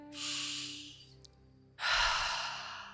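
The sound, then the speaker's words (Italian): A single slow, deep breath drawn in with an airy hiss, a brief pause, then a long, full exhale, with no talking. “Respira insieme a me.”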